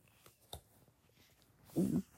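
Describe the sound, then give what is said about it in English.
Paper rustles: a couple of light taps and shuffles, then a louder, brief swish of a page being turned in a big book held in a ring binder, with no one speaking. “when you're trying to turn pages in here”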